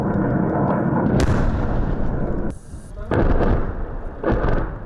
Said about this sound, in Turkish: Çaresiz durumdaki Ermenistan ordusu kendi topraklarından bölgeye ateş açtı.